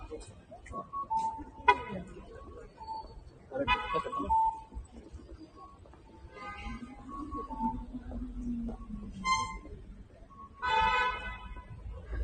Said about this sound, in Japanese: 結構、車のクラクションがプープーなりますね。この辺が、東京にはあんまりない感じかな。クラクション鳴らすことなんて、まあ、ほぼほぼないですからね。